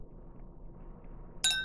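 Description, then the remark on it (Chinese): A single bright metallic clink rings out after a stretch of low, quiet background hum, its high, tinkling overtones shimmering briefly before fading. “金属所发出来的声音其实都可以哈。”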